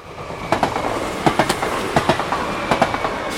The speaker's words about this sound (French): Il est délimité par des habitations et une voie ferrée. Parfois, la sonnerie retentit, la barrière du passage à niveau se baisse et un train passe.